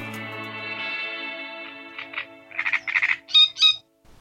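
A great reed warbler sings harsh, croaking, grating notes in quick bursts that grow louder and more insistent toward the end, rising over a steady tonal hum that fades out.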